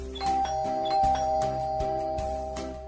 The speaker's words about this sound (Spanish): Vamos a tocar el timbre en esta casa a ver qué tal nos reciben.